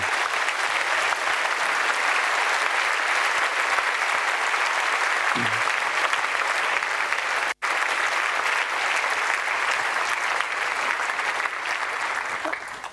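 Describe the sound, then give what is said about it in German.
An audience applauds the event's organizing team steadily and loudly, a dense wash of many hands clapping that holds for the whole stretch with only a momentary break, tapering slightly at the end. “Ich glaube, da können wir einen ganz großen Applaus Ihnen an dieser Stelle geben.”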